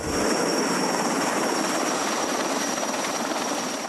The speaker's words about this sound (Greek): Οι δυνάμει πυροσβεστική πλέον δίνουν μάχη με το χρόνο για να οριοθετήσουν τη φωτιά όσο πετούν τα εναέρια μέσα.